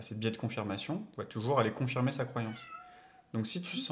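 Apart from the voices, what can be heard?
domestic cat meowing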